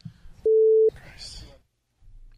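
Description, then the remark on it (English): A single loud, steady censor bleep lasting about half a second covers a swear word in a stretch of talk, followed by a breathy, hissy burst before a pause and more speech. “I quote, I lost my train of thought hearing that bull bleep.”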